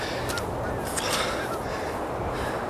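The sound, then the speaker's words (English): A few short, harsh honking calls from a pink-footed goose over a steady bed of outdoor background noise. “For the record, it was a goose. A pink footed goose.”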